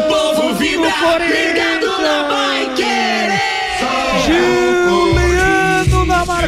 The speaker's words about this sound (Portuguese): de 45 e 30 para explosão de alegria da nação corintiana na Neoquímica em todo o Brasil. É o gol que confirma a classificação para a grande final contra o Flamengo.